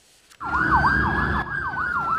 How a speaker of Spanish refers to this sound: En las calles de Los Ángeles el sonido de las sirenas de la policía persiguiendo a un vehículo huyendo se ha convertido en un hecho cotidiano que está resultando en tragedias de personas inocentes